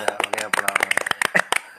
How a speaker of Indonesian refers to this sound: kita kadang nggak sound sound efek kita pakai tepuk